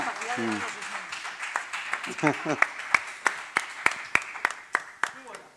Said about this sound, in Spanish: Mira, si está por aquí, que le están aplaudiendo. Así que entiendo que está aquí mismo.